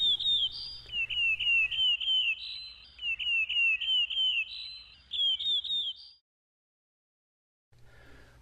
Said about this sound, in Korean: 새들도 모두 한 목소리로 노래하고 있으니 우리도 한번 불러볼까?